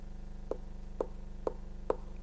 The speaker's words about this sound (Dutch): Het tikken van die staf staf op de rotsbodem. En dan weten die schaapjes, oh, hij is er vlakbij. Ik hoor nog het tikken van de staf. Ik hoor het nog.